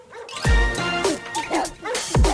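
A dog barks loudly, two sharp barks at the start and end with growling, yelping vocalizations in between.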